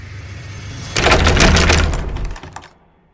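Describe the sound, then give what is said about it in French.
A door handle is rattled hard and fast by a man just outside the door, a burst of loud, rapid metallic clicking that starts abruptly, lasts about a second and a half, then trails off into quiet. “Et au moment où je me lance pour fermer la porte, la poignée, elle s'agite genre dans tous les sens.”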